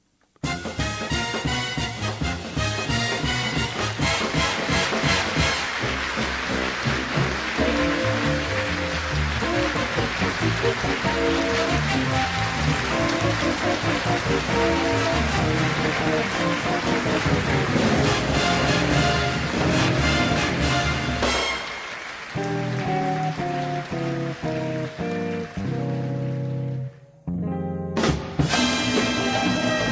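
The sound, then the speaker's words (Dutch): Dense, sustained applause pours over the upbeat jazzy opening theme music of the TV show Wie van de Drie, with brass and a steady rhythm, the clapping hissing like rain throughout before the music briefly carries on alone near the end. “Jazzy klanken onder een, ja, onder werkelijk een douche van applaus.”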